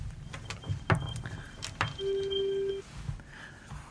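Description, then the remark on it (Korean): A telephone line connects for the next call with a steady electronic ring tone lasting under a second, preceded by scattered clicks and button sounds, with no one speaking. “여튼 다음 전화 네. 받아보도록 하겠습니다.”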